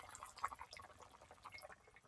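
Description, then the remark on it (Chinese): Pork rib and kelp soup boiling in a pot: a quiet, steady stream of small irregular bubbles and soft pops, with no voices. “然后现在如果你仔细听的话，可以听到这个嗯锅里面沸腾的声音”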